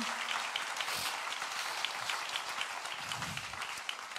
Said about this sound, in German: Und hey, nochmal, können wir unser Production, was alles Technik, unser Communication-Bereich, unser Kamerateam einen riesen Applaus geben?